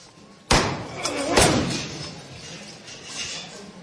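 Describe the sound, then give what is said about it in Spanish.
A heavy wooden procession float carrying the Virgin is lifted with a loud, sudden thud, followed by a second knock and a rattling shudder that shakes the float, with crowd voices murmuring in the background. “Una levanta que la han hecho con muchas ganas, lo suficiente para hacer temblar todo el pase de palo.”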